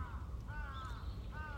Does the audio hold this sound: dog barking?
no